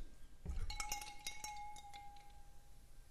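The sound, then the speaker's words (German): Tonic water is poured into a glass over ice, with a quick burst of sharp clinks and cracks at the start, then a steady ringing tone and fizzy crackle fading away. Fairly quiet. “So kommt das jetzt erstmal als erstes der Tonic. Oh, ich mag ja dieses Geräusch, wenn, wenn im Glas schon Eis drin ist.”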